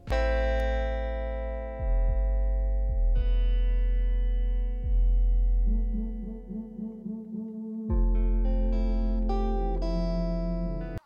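A song plays on a radio broadcast with thick, distorted low bass and sustained electronic chords, sliding pitch drops, and a stretch of wobbling, pulsing tones midway before brighter synth notes return; no vocals.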